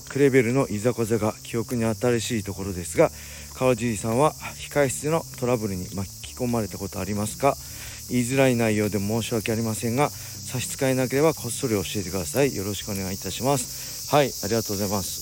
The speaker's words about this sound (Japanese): すごいセミの鳴き声ですね夏ですね皆さん聞こえますこれももう木に囲まれた木のトンネルをくぐってるんですけどセミの鳴き声半端ないです僕の声より大きいんじゃないでしょうか